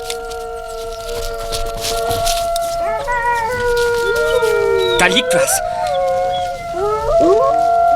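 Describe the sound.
Several overlapping wolf howls, long sustained tones that rise and bend in pitch, are played back from a tape on a cassette recorder with a faint hiss. The howls echo off the walls at regular intervals while a person speaks briefly over them.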